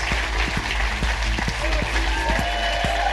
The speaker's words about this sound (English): Will you give a massive round of applause to the amazing Alan Davies? Thank you very much for coming. Thank you, everyone at Expert Theatre, for having us.